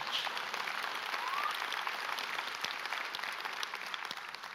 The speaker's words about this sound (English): If you're going to clap, you might as well clap properly. Come on, Biltmore Church.